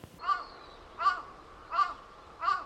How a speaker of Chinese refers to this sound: 乌鸦发出叫声，小鸟即将回巢，天也即将暗了。